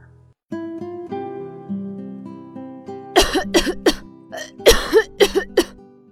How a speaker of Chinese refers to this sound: 呼噜猪嗓子痒痒的，一声接一声的咳嗽。